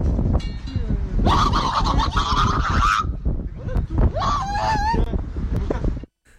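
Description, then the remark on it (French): A voice mimics a turkey's gobble with two bursts of warbling, throaty calls, a longer one followed by a shorter one, loud against a steady rumble of background noise. “Et j'ai fini par le dindon.”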